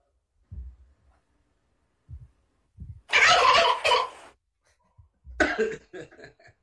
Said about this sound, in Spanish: Guajolotes. ¿Eh? ¿Nunca tuvieron guajolotes?